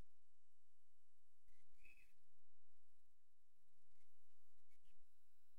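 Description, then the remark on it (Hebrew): A few faint bird chirps, short high calls scattered across a quiet outdoor background on a balcony, with no talking. “מעניין, לדעתי שומעים את הציפורים, לא?”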